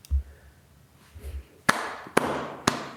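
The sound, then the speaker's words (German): A man applauding himself: three sharp, loud handclaps spaced about half a second apart, each ringing out briefly, after a couple of soft low thumps. No talking. “Jetzt applaudiert er sich echt selber.”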